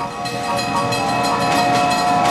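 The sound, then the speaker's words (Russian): A steam locomotive racing along, with rapid rhythmic chuffing bursts over a steady, loud whistle-like tone that holds throughout the short clip. No one speaks. “Маэстро, нарисуйте нам мчащийся на всех парах паровоз, у которого в лучших традициях Фрэнки Шоу уже из ушей идет пар.”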